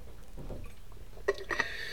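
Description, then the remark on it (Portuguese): Someone takes small sips of water: soft, wet mouth sounds followed by two brief, sharper gulps a moment apart, with no talking. “Vou agora beber um bocadinho de água.”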